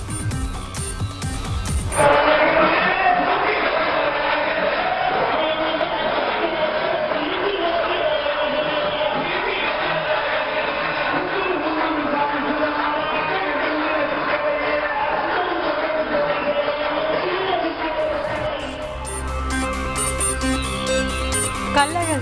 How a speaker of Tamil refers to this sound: மதுரை காண திரண்ட பக்தர்களால் குலுங்கியது மதுரை மாநகர் இரண்டு ஆண்டுகளுக்கு பிறகு அனுமதி வழங்கப்பட்டதால் குதூகலம்